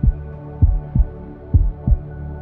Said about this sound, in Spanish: Este es el sonido de mi corazón en reposo.